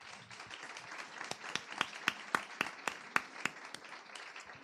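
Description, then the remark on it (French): A crowd applauds steadily, a dense wash of clapping with several sharper, louder claps standing out in a loose rhythm through the middle before it evens out again. “On peut déjà les applaudir.”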